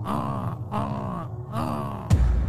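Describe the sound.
A voice imitates a crow, letting out three drawn-out, raspy caws in a steady rhythm, fairly loud, followed by a brief low thump.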